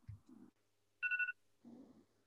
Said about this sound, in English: Yeah, no, my alarm, I've changed it to like, it's called chimes or something. So it's just a really gentle, like wind chimes.